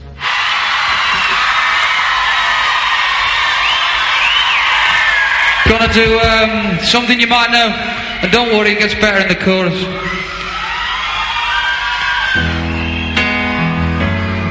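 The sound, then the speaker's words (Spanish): A loud pop song cover with high, strained vocals that rise into shrieks over dense instrumentation, the singing becoming more prominent and choppy partway through. “atento a los chillidos.”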